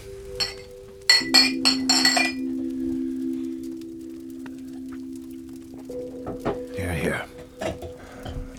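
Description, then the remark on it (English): Glasses clink together in a toast to Abram, a quick burst of several bright, ringing chinks, followed later by a few softer clinks over a low steady hum and faint voices. “And then I raise a glass.”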